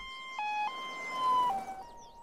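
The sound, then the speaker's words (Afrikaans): An ambulance siren wails with steady alternating high and low tones, moderately loud, heard alone without voices; the ambulance is coming to take a sick grandmother to hospital. “Maar voordat Susan vir mamma kan vra wat verkeerd is, hoor sy nog 'n sirene.”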